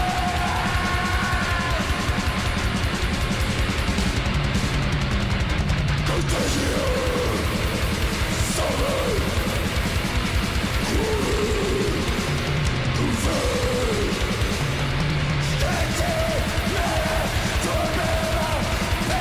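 Chaotic, fast extreme metal plays loud and dense throughout, a wall of distorted guitars and pounding drums with harsh yelled vocals, without pause.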